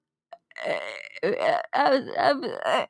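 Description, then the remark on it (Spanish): A voice imitates a loud fart in three drawn-out, buzzy, guttural blasts, forceful, with only brief pauses between them. “y yo estaba caminando atrás y escucho Fue el pedo más fuerte que he escuchado en mi vida.”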